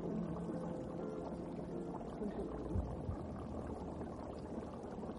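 Continuous low bubbling and gurgling water with a steady pouring wash from a fish aquarium in an office, at moderate, even volume with no voices.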